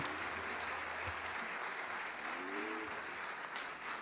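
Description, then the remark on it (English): An audience applauds the children's ministry directors steadily, a dense wash of many hands clapping at an even loudness for about four seconds, with a few faint voices murmuring underneath. “Uh, can you can you clap for them?”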